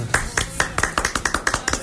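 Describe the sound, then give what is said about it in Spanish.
Applause: a quick run of about a dozen sharp, distinct claps at a brisk, slightly uneven pace, fairly loud, with no voices over them. “hay aplausos.”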